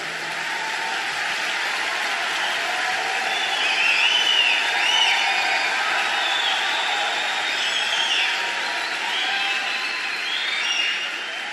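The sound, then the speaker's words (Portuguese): A large church audience applauds loudly and steadily during a sermon for the whole stretch, a dense wash of clapping with cheers and a few high whistles rising through it, swelling briefly in the middle. “Pode aplaudir bem forte.”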